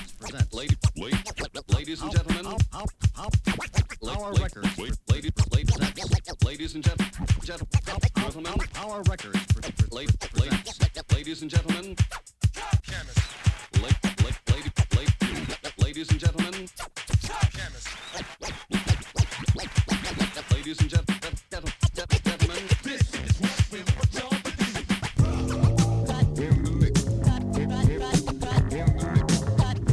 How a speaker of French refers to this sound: Il se concentre principalement sur des sons de radio avec beaucoup de scratching